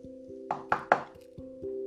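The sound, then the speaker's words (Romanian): Three quick, firm knocks on a door in an even rhythm, clear, over a soft steady musical hum that continues after they stop; in the story a little lamb knocks at an old wolf's door. “cioc-cioc, la ușă bătu un mieluț.”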